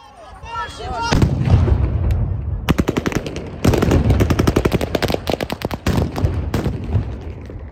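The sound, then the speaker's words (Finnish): Rapid bursts of gunfire crack repeatedly amid loud booming stun grenade blasts as Russian forces fire toward hundreds of protesters on Freedom Square to disperse the crowd, filmed by a surveillance camera, over a roaring crowd with shouting voices, the shots coming in dense rhythmic volleys throughout. “venäläiset käyttivät tainnutus granaatteja mielenosoittajia vastaan sekä ampuivat kohti mielenosoittajia hajottaakseen väkijoukon”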